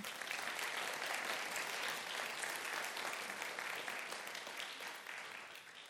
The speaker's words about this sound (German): Sehr gut. Einen herzlichen Applaus für die beiden.